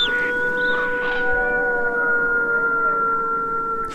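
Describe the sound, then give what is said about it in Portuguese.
Several wolves howl in long, overlapping calls that hold steady and then waver in pitch, forming a continuous chorus that carries on loudly for the whole stretch, with no voices present. “A de dezembro é a lua do lobo.”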